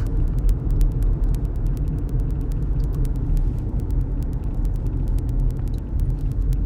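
Steady, loud low rumble of road and engine noise from inside a moving vehicle, with faint rapid ticking clicks running throughout and no voices.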